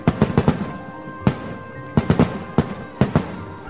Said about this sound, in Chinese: 即使周围全是烟花爆竹的声音